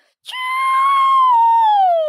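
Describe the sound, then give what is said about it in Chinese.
A voice imitates a bottle rocket firework whistling: one loud, sustained high-pitched whine of about two seconds that holds steady, then slowly slides downward in pitch at the end. “就我发现大部分害怕鞭炮的狗狗，对于冲天炮类型的。恐惧程度会更高”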